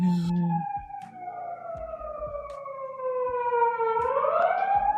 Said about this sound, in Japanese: すごいな。消防車だよね。パトカー。消防車。